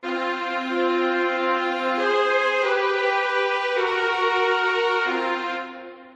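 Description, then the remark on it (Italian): A band's second keyboard, set to a piano sound, plays a short run of sustained chords on its own during an instrument check before playing, shifting about four times over six seconds, steady and fairly loud. “Pianoforte.”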